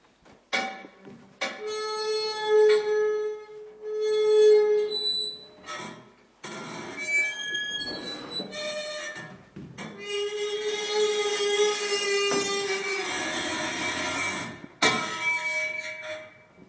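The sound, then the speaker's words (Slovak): A rotating mechanical nativity scene, a 19th-century hand-carved wooden Bethlehem on a turning set like a revolving stage, turns, its mechanism giving off sustained squealing, whining tones that shift in pitch, broken by short pauses and clunks, moderately loud, with no voices. “Ten zvuk si vypočujete, milí poslucháči, keď sa to otáča, tak presne je to ako taká kulisa.”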